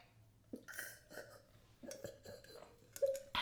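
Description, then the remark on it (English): Gulping as someone drinks water, a series of loud throaty swallows spaced irregularly over a few seconds, with no talking. “your gulp is really loud, so we're just pausing for you.”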